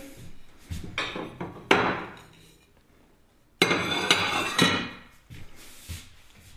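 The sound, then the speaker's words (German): Plates and dishes clatter and clink as they are unloaded from the lower left of a kitchen cupboard, with a few sharp knocks and a longer burst of jangling crockery, heard in a reverberant kitchen with no talking. “So, jetzt räumen wir erstmal aus.”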